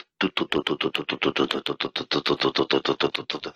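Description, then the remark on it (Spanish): A helicopter passing overhead, its rotor beating out a loud, rapid, steady chop that fills the whole clip, with no voices over it. “Eso era un helicóptero que estaba pasando.”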